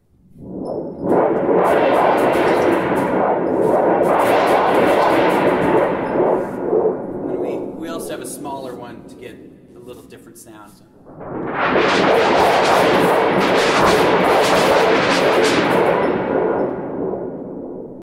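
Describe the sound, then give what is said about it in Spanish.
A metal thunder sheet, also known as a thunder machine, shaken to vibrate and simulate thunder: loud, rumbling waves, a broad roaring wash with metallic clanging shimmer, swelling twice with a brief lull between the two long bursts. “Eh, entonces, esta lámina la, agitan para que vibre o también se, se golpea con algún mazo, dependiendo del tamaño, ¿no?”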